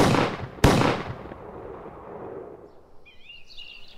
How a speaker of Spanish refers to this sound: De repente escuchó dos disparos. Y luego contestaron dos disparos.